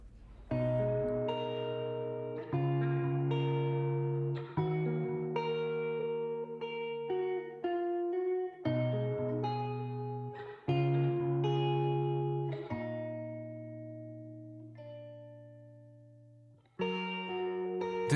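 A music track plays with no voices: loud, sustained chords rich in harmonics shift every couple of seconds at a steady level, then fade briefly before a final chord swells back in.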